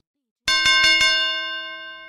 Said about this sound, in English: Ted had a bell.